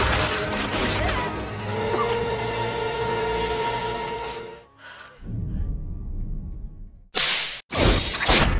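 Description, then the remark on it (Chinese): A long, dense crashing and shattering clatter as a body breaks apart into many pieces scattered over the ground, then a short lull and two sharp, bright bursts of smashing at the end. “眼瞅着冲动哥碎了一地”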